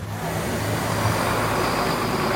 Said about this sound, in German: Es hält hier gerade ein Bus, je nachdem, ob das jetzt ein Elektrobus ist oder ein Diesel.